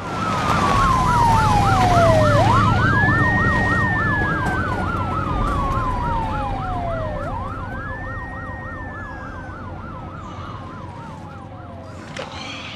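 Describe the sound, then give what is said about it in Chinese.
An ambulance siren blares steadily as a patient is taken to hospital, a fast warbling yelp layered over a slower wail that rises and falls twice, with low traffic rumble underneath and the level easing slightly toward the end. “他很快就被医疗人员发现，护士给他测了血压，发现怎么测都是零，于是只好把他送上了救护车，准备带回医院做进一步检查。”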